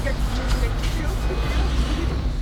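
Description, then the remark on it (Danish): A steady low rumble from inside a car waiting at the border crossing from Poland into Ukraine, with a muffled, enclosed feel and faint voices murmuring in the background. “Vi sidder i bilen og venter på at få svar på, om vi må komme fra Polen og ind i Ukraine.”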